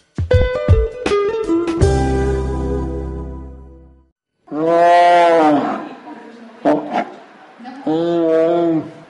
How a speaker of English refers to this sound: Tigers use their roars to communicate. But it turns out there's much more to the types of sounds a tiger makes, which could help scientists save the endangered wild species.